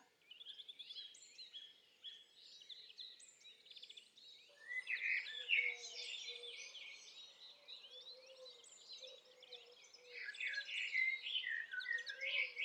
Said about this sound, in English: Oh, oh, oh, I can hear a blackbird.